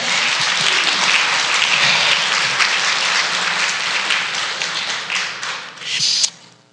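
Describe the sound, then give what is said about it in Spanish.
A large crowd claps loudly and steadily for the Lord for several seconds, a dense wash of many hands, swelling briefly near the end before it cuts off. “Yo creo que ese Señor se lo merece más grande que eso. Dáselo fuerte, Señor.”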